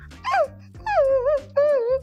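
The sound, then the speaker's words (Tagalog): A person's voice imitates their larger dog, Unan, whimpering at the door: three drawn-out, high, wavering whines in quick succession, fairly loud, with short pauses between them and no other talking. “si Unan yung isa naming aso. Si Unan mas malaki. Si Unan nandun sa pintuan. At ang sabi ni unan.”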